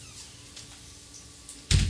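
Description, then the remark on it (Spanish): The door of a recording studio shuts with a single solid thud after a brief stretch of quiet room tone, the impact loud and low with a short rattle as it settles; it is very cold outside. “Por favor, cierra la puerta que está muy frío afuera.”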